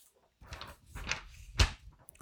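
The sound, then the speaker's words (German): A sheet of paper slides and rustles across a table from one corner to another in a few quick swishes, with a sharper scrape near the end; no one speaks. “Schaut, ich mache mal ein Beispiel. Ich habe ein Papier auf dem Tisch”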